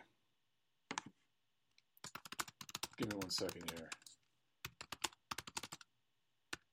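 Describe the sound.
Rapid, irregular keyboard typing with crisp clicks in short bursts as someone types a message; a man briefly speaks midway through the keystrokes.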